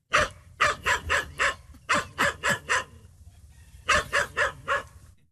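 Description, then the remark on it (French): A Tibetan spaniel barks in quick bursts: four sharp barks, a pause, four more, then after a short lull another rapid run of four or five. The barks are fairly loud, with no talking. “Critique numéro 3, c'est toujours du tibétain, mais vous l'auriez remarqué puisque vous le parlez couramment, mais là ah c'est de l'épagnol tibétain.”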